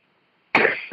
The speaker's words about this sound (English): Actually, I was coughing. Sorry.